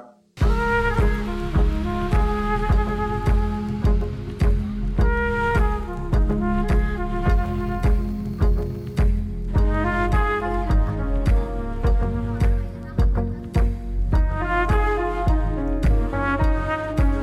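A full-band music track played on air plays loud and steady, with punchy drums, bass and bright melodic lines driving a regular beat throughout, no voices over it.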